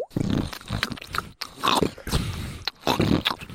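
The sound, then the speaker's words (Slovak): A voice mimics crunching on potato chips left over from the day before: a few loud, noisy bursts of munching and crackling in quick, uneven succession, with brief pauses between them and no talking. “Dal som si čipsy zo, vše- zo včera.”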